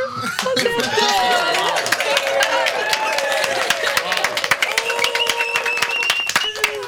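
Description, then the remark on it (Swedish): An audience claps steadily after a Lucia song sung by a fifth-grade class from Olofslundsskolan in Bromma, a dense patter of many hands lasting the whole stretch, with voices calling and chattering over the applause. “Får man klappa nu?”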